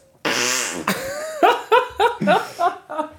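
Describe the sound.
A loud, buzzy hand fart squeezed from the inside of an elbow by pressing the arm together sputters for about half a second, followed by a string of short, bursting laughs.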